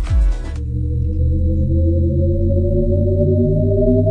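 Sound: shepard tone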